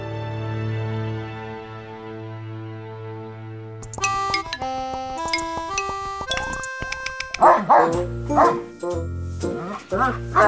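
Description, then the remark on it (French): A few loud barks from Joe Biden's two adopted German shepherds, Major and Champ, come in close succession near the end, after a stretch of sustained electronic tones and a stepping musical melody. “Il s'installera avec ses deux chiens qu'il a adoptés, deux bergers allemands appelés Major et Champ pour champion, champion.”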